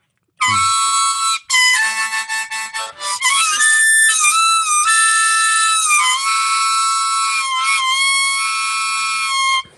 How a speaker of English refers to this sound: smoky greasy hint of another hole bleeding through on the high end it, of the harmonica